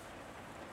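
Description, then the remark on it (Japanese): Steady rain patters on a car from inside the cabin, a dense, continuous hiss with no voices, muffled and fairly soft throughout the brief moment. “今車の中で話してるんですけど若干雨の音うるさくてすいません。”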